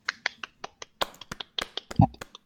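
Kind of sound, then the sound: crowd, hand clapping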